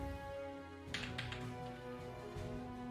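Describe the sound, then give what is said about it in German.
A twenty-sided die, rolled without modifiers for a laser attack in a game, clatters across a hard surface in a short burst of quick taps, then a final click settles it on 17, with steady background music humming underneath. “Also, äh, ein W20-Wurf ohne. Würfeln wir jetzt ohne, auf Laser.”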